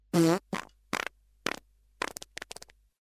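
A loud fart opens with a strong, buzzing blast, then breaks into a string of shorter, weaker sputters that trail away into silence.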